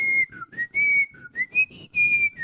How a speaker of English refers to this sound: But when a game reserves that space in my limited brain, at this point, like I know it's good and the fact that I can still whistle and hum the tunes on, from you? that game.